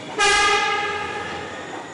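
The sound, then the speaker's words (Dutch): A metro train horn blares in one long, loud, sustained blast, heard through a ventilation grille by the bedroom of flats above the metro, starting abruptly and holding steady with a piercing harmonic tone until the end. “Flatbewoners verlost van metrotoeter”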